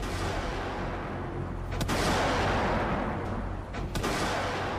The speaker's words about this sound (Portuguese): Quando inicia a retirada, a montante é alvo de disparos de morteiros vindos da cidade. Responde com tiros de intimidação.